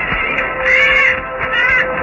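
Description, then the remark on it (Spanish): Bats shrieking as they fight among themselves: two harsh, high, raspy screeches, each about half a second long, rising and falling over a steady hiss, loud and with no voices. “Era una escena impresionante y diabólica y el muchacho temblaba de horror al ver cómo los murciélagos luchaban entre sí lanzando espantosos chillidos y bebían la sangre que brotaba a borbotones.”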